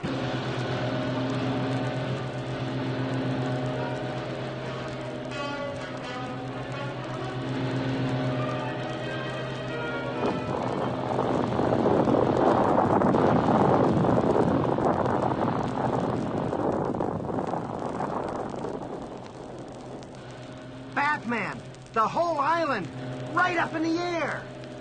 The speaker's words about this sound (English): Quickly, they untie the boat, rev the motor, and race away.